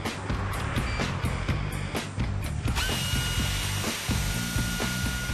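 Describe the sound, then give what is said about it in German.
A power drill runs steadily for several seconds at a main gas line, its loud mechanical whine joined by rapid rhythmic clicks and knocks as the bit grinds through material. “Der Bohrer darf keine Funken verursachen.”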